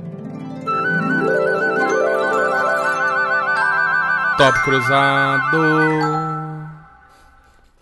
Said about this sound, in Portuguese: vai ter a vinheta que você não vai ouvir